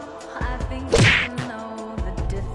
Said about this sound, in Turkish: Evet lafımın arasına sokuyorsunuz. Evet, ben, bence bak gibi, onu diyordum lafımı yumruk yine kesti şey diyecektim.